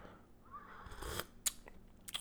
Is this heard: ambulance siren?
no